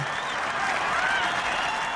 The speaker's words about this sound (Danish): Altså, man kan jo simpelthen høre, de råber med på det sidste, ikke?